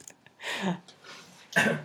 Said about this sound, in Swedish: Jag sniffade lite i, i frustration över ett potatisskal som inte vill lossna.